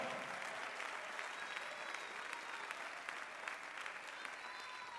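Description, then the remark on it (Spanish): A church audience applauds the Lord during a sermon, steadily for several seconds, a dense wash of many hands clapping at an even level, with faint voices and a few whistles mixed in beneath. “Si lo cree, den el mejor aplauso al Señor.”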